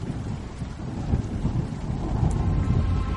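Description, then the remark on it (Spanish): Heavy rain pours down steadily in a dense, continuous hiss with a deep low rumble underneath, growing slightly louder toward the end. No voices are present. “Ahora la lluvia caía con más fuerza.”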